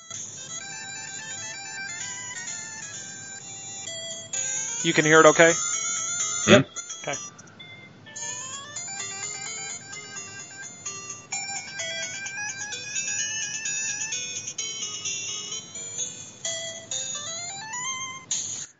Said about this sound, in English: So, here is the title theme to Punch Out. Okay. So this is. I don't know if anybody remembers it, but I'm gonna play it.